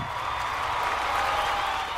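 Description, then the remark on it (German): A large crowd of about 250,000 people in the streets of Paris at night cheers and applauds Charles Lindbergh after he landed the Spirit of St. Louis at Le Bourget following his flight from New York, in a dense, continuous roar of clapping and voices, steady, with no single voice standing out. “Der Jubel kannte keine Grenzen.”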